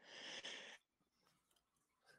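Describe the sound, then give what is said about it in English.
A single loud sneeze bursts out in a sharp, breathy rush, then fades into near silence with only faint rustling and breathing afterward. “Bless, Bless you. you. Thank you.”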